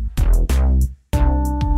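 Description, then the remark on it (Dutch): Short synthetic piano phrase programmed in Ableton and played on computer keyboard keys: struck chords, four notes in a steady rhythm with a brief gap in the middle, each ringing out over a low bass tone, loud with no talking. “en een piano, wat denkt u?”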